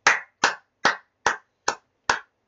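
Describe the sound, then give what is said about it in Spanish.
Seven sharp hand claps in a steady, even rhythm, a bit over two per second, each a crisp slap with a short decay and silence between, with no voices. “Un aplauso a mami que nos dejó cocinar una rica comida.”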